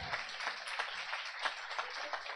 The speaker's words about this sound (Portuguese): E aí, pode aplaudir Jesus, porque essa é a verdade.